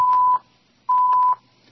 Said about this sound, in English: And, put, and they're still beeping that damn bleeping the beeping uh, thing. Jesus, God Almighty.